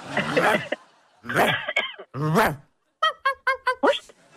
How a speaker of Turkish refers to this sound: Evet sağ tarafta görmüş olduğunuz vahşi köpekler. bir, birbirleriyle oyun oynuyorlar.